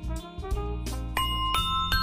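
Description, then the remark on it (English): A bright notification bell chime rings out about six times in a quick, steady series, each clear strike ringing on with sustained tones over a low hum, with no one talking. “You couldn't tell whether it was the bell or if it was me.”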